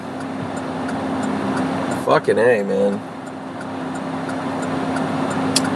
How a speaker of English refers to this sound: trying to get out of here is fucking ridiculous. So much traffic. This just doesn't stop. It's 10:30 now. Still tons of cars, man.